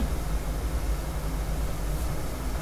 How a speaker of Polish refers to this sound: Ale też jak dotknę yy, rączki, to ten garnek coraz bardziej drży. Już się zaczyna gotować, ale no właśnie jeszcze zaczyna. No, zaraz chyba zacznie nawet bulgotać trochę. przekręciłam gaz. No, ale teraz już się gotuje.